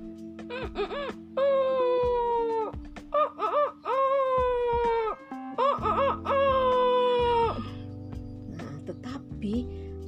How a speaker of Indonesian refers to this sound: Allahu Akbar, Allah Akbar dan suara si Jalu di kandang berkokok.